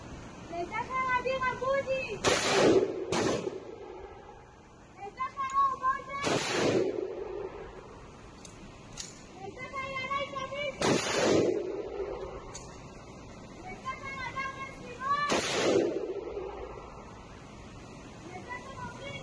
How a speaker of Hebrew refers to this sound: בשבוע שעבר ערכו הטירונים מטווח לזכרם, קולות הירי שתשמעו מיד, מוקלטים כמובן.